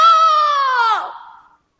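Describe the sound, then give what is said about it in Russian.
A single drawn-out rooster crow, loud, holding a strained, harmonically rich note before sliding down in pitch and trailing off, with no other sounds around it, on the main town square in front of the town hall. “Вартаўнік ратушы вельмі здзівіўся, пачуўшы крык пеўня ў такі час.”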